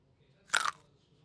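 A single crisp crunch of someone biting into a raw potato, brief, with a short burst of crackling texture before fading into quiet.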